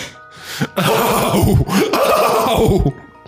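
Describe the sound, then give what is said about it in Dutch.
A person's voice imitates a horse whinnying in pain, a loud, quavering, strained neigh lasting a couple of seconds, with a brief breath before it. “Ehm, dus er wordt vermoed dat ze misschien op een of andere manier geprobeerd hebben om te klinken als een dier dat pijn aan het lijden is.”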